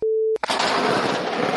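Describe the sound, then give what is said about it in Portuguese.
A steady electronic tone is cut off by a sudden, loud crack of nearby thunder, followed by a sustained, roaring rumble that fills the rest of the moment. “Eu, acho, eu acho isso foi um trovão.”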